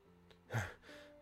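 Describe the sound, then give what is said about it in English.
A voice imitating distant heavy breathing: a single breathy gasp or heavy exhale, a short airy burst swelling and fading within about a second, moderately loud over a faint steady hum. “Heavy breathing.”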